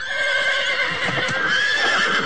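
A horse neighs loudly in one long, shrill whinny that wavers in pitch and lasts about two seconds, heard on its own without any talking.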